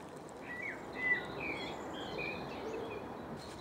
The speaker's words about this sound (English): With birdsong.